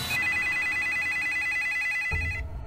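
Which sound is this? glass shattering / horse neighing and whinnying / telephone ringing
telephone ringing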